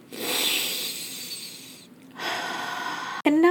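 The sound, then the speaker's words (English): A deep, slow diaphragmatic belly breath is drawn in, expanding the belly, waist and back, an airy rushing inhale in two long stretches with a short pause between, then a voice starts right at the end. “The one that we have been practicing right now is called diaphragmatic belly breathing.”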